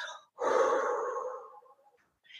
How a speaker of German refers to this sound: dürfen wir das oder also können wir das gleich mal miteinander kurz machen, indem du dir einfach erlaubst, wenn du magst, durch deine Nase ganz tief bis hinunter in dein Becken, ja, hineinzuatmen und dann auch wirklich